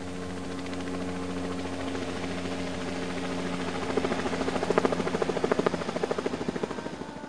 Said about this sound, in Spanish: Saúl comenzó a escuchar un sonido muy parecido al que hacen los helicópteros cuando vuelan